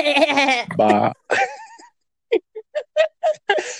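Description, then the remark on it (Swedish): A person gives a wavering, nasal imitation of a lamb's bleat, with laughter around it, then several short, clipped vocal bursts. “Det, hade ju, det är ju liksom lamm. Bä!”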